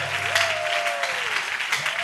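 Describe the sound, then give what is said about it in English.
An audience at a church sermon claps their hands in praise of God in a steady, dense wash of applause, broad and hissy, with a sustained tone and a faint low hum underneath. “Will you clap your hands and praise this?”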